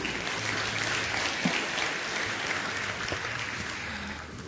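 audience applause

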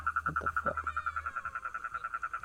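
frogs croaking

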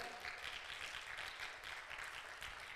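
audience clapping hands

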